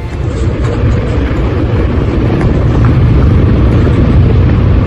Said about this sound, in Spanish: En La Palma, la lava mientras tanto alcanza la playa de los Guirres Así sonaba al tocar agua.